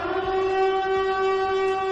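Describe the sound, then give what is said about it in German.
A civil defense siren in Augsburg sounds during a siren test, loud and steady, one sustained droning tone rich in harmonics that holds for the whole two seconds, with no voices over it. “Heute werden in Augsburg Sirenen getestet.”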